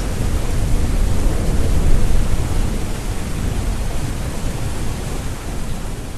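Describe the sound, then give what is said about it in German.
Steady, heavy rain hisses throughout a thunderstorm, with a deep rumble of thunder swelling briefly near the start before settling back into the dense downpour. No voices. “heute geht es ums Thema Gewitter fotografieren. Das war gerade äh, ein, Sound, ein Soundseeing, ein Stück von einem Soundseeing von dir”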